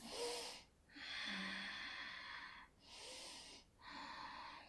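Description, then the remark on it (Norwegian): Slow, deliberate yoga-style breathing: a breathy inhale and a long hissing exhale, then another inhale and exhale, each drawn out with short pauses between. “Puster sånn der yogapusting, og så er hun sånn der Så ga hun komplimenter på pustingen min.”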